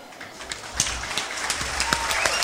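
A crowd claps together in a dense, steady patter of overlapping hand claps, with a few sharper, louder claps standing out and no voices clearly heard.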